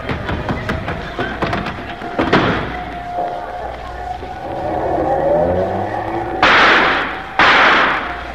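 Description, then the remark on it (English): A few quick thuds like slamming doors, then a getaway car's engine revs up and roars away, its pitch climbing as it speeds off, ending with two sharp bursts of loud noise. “Quick, out to the car. We'll make a run for it.”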